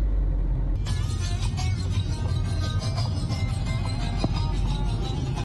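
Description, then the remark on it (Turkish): Steady road traffic in Antalya, Turkey, where a runaway calf moved through the traffic: a continuous low engine drone with brighter hiss from passing cars layered over it, no voices. “Antalya'da firari dana araç trafiğinde ilerledi.”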